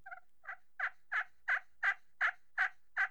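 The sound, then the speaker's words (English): A slate turkey call is run with part of the opening in its sound chamber box covered, in a steady series of about nine raspy yelps, each note evenly spaced and slightly muffled, fairly loud with no talking. “And there's an opening in that box, and you can cover up part of that opening and run the call.”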